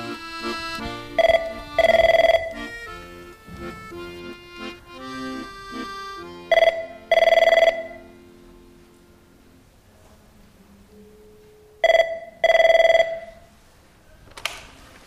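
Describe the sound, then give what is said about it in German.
A telephone at an addiction help centre rings three times at steady intervals, each ring a short burst followed by a longer trill, loud over a soft tonal background. “ich habe jetzt gerade eben Ihr Telefon aufgenommen.”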